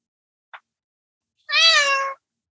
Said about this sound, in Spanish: Eh, aquí llegó una de las gatas regalonas.